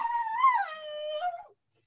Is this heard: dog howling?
yes